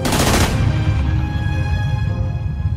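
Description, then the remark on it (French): A short, loud burst of rapid gunfire, eleven shots fired in quick succession by two men on a motorcycle at a man in a blue Mercedes at a service station in the 12th arrondissement, for about half a second, then a ringing, echoing decay over a low rumble. No voices. “Deux hommes à moto déboulent et déchargent 11 balles dans le thorax d'Antoine.”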